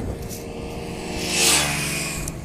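A moped engine buzzes past, its steady droning whine swelling to a peak midway with a hiss of rushing air before easing off again. No voices are heard.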